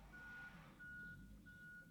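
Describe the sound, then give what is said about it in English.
A truck's reversing alarm beeps steadily in long, evenly spaced tones over a low engine rumble, heard from outside with no one speaking. “What's that noise? uh, you know, a truck.”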